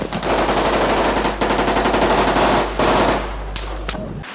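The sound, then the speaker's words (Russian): Sustained bursts of automatic gunfire at a school: gunmen on the second floor shoot at fleeing schoolchildren and soldiers return fire. Rapid sharp cracks repeat in long, loud strings with brief pauses between bursts. No voices. “Им в спину тут же раздаются автоматные очереди.”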